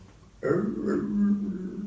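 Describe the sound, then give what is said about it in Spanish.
A dog lets out a low, drawn-out growling vocalization that starts abruptly and carries on steadily for about a second and a half, with no one talking. “Los perros vocalizan, no hablan.”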